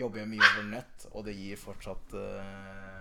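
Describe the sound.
A dog named Putin barks, a sharp bright bark near the start, while a man keeps talking steadily over the noise through the rest of the moment.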